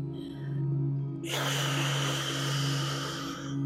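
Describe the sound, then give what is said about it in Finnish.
A single steady shushing exhale out through the mouth in a breathing exercise, lips slightly parted and tongue touching where the upper teeth meet the palate, a breathy hiss that starts abruptly and holds for a couple of seconds, fairly loud over a faint low hum. “Pidä koko kierroksen ajan huulet raollaan ja kieli koskettamassa ylähampaiden ja kitalain liitoskohtaa, joten ulos hengittäessä kuuluu tällainen”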